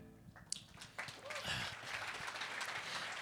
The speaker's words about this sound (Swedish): Man får inte applådera i kyrkan.